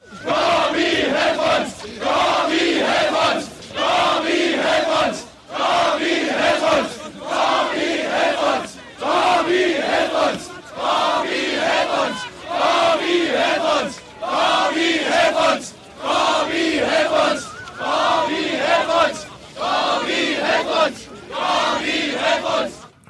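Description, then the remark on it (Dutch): A huge crowd of about 50,000 people in the GDR chants "Gorbi, Gorbi" for Gorbachev in unison, heard in a dinner hall, loud roaring bursts repeating steadily about every two seconds, a dozen or so times, with brief dips between each shout and no other sounds standing out. “Ja, als je 50.000 man scandeert, dan hoor je dat natuurlijk in die zaal van dat diner.”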